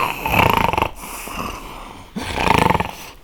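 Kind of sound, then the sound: human body sound, person snoring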